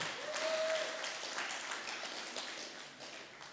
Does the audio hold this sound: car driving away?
no